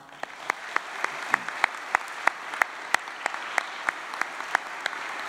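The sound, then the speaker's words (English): An audience applauds graduating seniors steadily, a dense wash of clapping with sharp individual claps standing out, with no voices. “Could we applaud our seniors one more time?”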